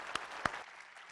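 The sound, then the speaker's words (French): An audience applauding warmly as a guest comes forward: a dense, fairly soft wash of clapping with a couple of sharper claps standing out early, thinning slightly toward the end of the brief burst. “Donc, est-ce qu'on peut l'applaudir chaleureusement pendant qu'il s'en vient?”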